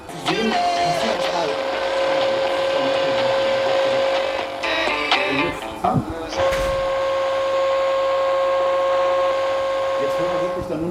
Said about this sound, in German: Das ging aber wirklich mit dem Knallen der Tür, war die Musik weg. Genau. Wenn die Tür zu ist, dann kommt eben keine Welle mehr rein.